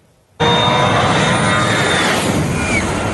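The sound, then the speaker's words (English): A loud, sudden blast of jetliner engine roar as the plane takes off at an airport on the Caribbean island of St. Martin, holding steady, a dense rushing thunder with a thin high-pitched turbine whine on top, very close. “People get incredibly close to jetliners taking off to feel the powerful thrust of the engines.”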